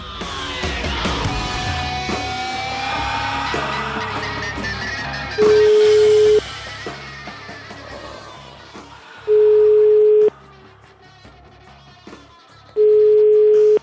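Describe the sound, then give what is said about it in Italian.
A telephone ringing tone sounds three times as the Radio 24 show La Zanzara calls a guest: steady pure-tone bursts of about a second each at regular intervals, over a bed of background music and soft noise, with no one speaking. “Chiamiamolo, ti prego, per capire che cosa è successo. Un conte alla zanzara, sentiamolo se risponde.”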